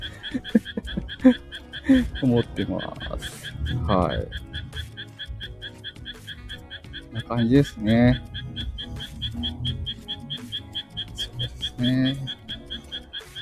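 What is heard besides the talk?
frogs croaking outdoors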